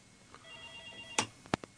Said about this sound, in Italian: C'è una telefonata.